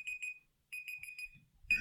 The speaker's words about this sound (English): That's our timer.